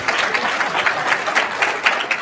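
A crowd applauds an advocacy team steadily, many hands clapping in a dense, fairly loud patter with small rhythmic swells, and no voices rising above it.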